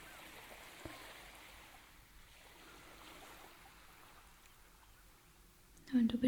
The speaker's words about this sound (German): Du hörst dem Meeresrauschen zu und deinem Atem.